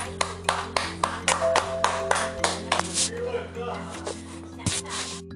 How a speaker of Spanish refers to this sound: Se escuchan aplausos.